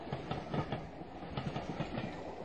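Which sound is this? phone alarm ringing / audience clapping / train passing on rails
train passing on rails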